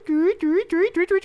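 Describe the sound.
A person imitates a bird call with about six rising, whistle-like vocal notes that grow shorter and come faster and faster, clear with no other talking.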